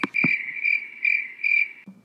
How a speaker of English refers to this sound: Crickets, right? Not a soul. Crickets.